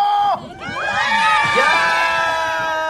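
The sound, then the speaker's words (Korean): A loud studio audience at an open studio during a live Saturday broadcast cheers and shouts, many high-pitched voices screaming together in a sustained wash of excited noise that swells after a brief dip and holds steady. “자, 여러분 소리 질러!”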